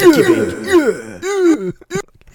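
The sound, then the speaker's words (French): A fairly loud voice imitates an engine, making a few gliding vocal revs that rise and fall in short bursts separated by brief pauses. “là, je faisais juste des onomatopées comme le gars pis son moteur, tu sais, fait que c'était peut-être pas la meilleure chose du monde”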